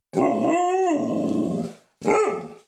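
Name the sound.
dog barking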